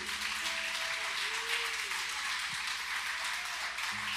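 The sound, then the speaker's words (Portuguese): An audience at a night church service applauds steadily for the joy of God, a dense, even roar of many hands clapping that holds for about four seconds, with faint low tones humming underneath. “Se tem alguém acreditando na alegria do Deus, aplauda ele bem forte.”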